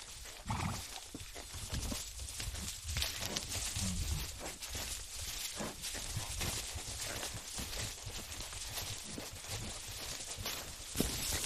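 Horse hooves plod steadily along a trail in an irregular walking rhythm on a riding safari in the Okavango Delta, with rustling and a broad outdoor hiss in the background; no one speaks.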